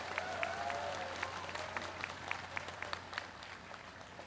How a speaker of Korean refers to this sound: 큰 박수로 화답해 주시기 바랍니다.